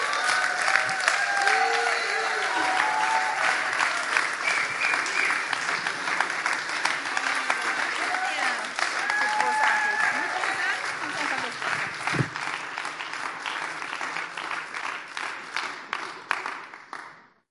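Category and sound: crowd, big audience applause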